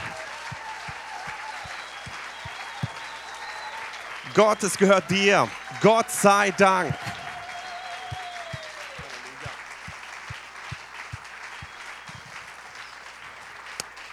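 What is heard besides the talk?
audience applauding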